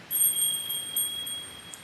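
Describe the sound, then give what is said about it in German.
A small Christmas gnome bell (Wichtelglöckchen) rings with a bright, high, sustained tone, shimmering through a few quick repeated strikes for about two seconds, with no voices. “Zufrieden läuten Mayumi und Mayoko ihr Wichtelglöckchen.”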